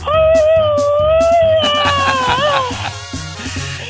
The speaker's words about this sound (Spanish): Echa tu grito alterado, viejón.